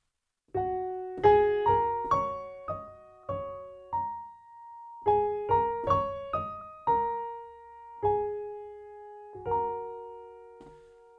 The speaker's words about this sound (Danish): Den nemme version, det er bare at spille på de sorte tangenter på dit klaver. Det var det, jeg gjorde her.